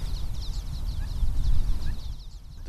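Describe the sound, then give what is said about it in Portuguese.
Common waxbills, very small birds barely visible, give a stream of thin, high chirping calls, repeated quickly and fairly faint, over a steady low rumble of wind or background noise outdoors. “Estamos a falar de uma ave muito pequenina, que é o bico de lacra.”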